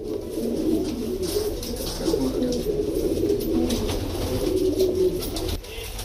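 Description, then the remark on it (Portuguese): A flock of carrier pigeons kept in training by the police of Odisha state, eastern India, coos steadily, layered low warbling calls overlapping without pause, moderately loud, with faint rustling and shuffling in the background. “A polícia indiana do estado de Odisha, no leste da Índia, decidiu manter o treino de pombos-correios.”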